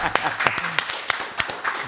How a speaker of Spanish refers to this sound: Venga, un aplauso, la verga.